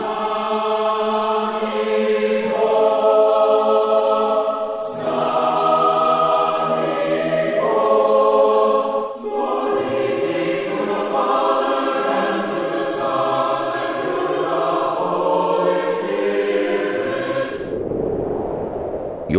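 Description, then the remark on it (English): The choir of Annunciation Byzantine Catholic Parish in Homer Glen, Illinois, sings music of the sacred liturgy in sustained, blended harmony, voices holding long chords and moving together in phrases, steady and fairly loud, ending abruptly near the close. “are listening to the choirs of Annunciation Byzantine Catholic Parish”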